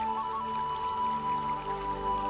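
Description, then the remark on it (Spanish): Water splashes and trickles continuously from a very large fountain, flowing through its channels and out of its several outlets, a soft, steady wash of droplets with a sustained tonal hum running underneath throughout. “Me conecto con el sonido del agua danzando por las distintas salidas de la fuente.”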